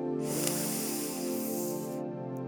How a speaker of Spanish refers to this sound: Y ahora quiero que hagas una inhalación profunda por la nariz y que exhales completamente por la boca. Así nos relajamos juntos. Yo lo haré contigo.